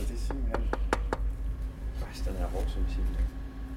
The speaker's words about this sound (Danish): Må man, kan man prøve at banke på den? Ja, ja. ja.